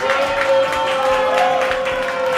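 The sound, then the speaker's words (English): A crowd applauds and cheers steadily for a couple of seconds for the Inner Geekdom champion, a dense wash of clapping with excited shouts and whoops running throughout. “Guys, give it up for your champion.”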